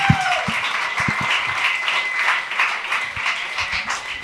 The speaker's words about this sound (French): Merci tout le monde. J'aimerais ça qu'on donne bonne main d'applaudissements.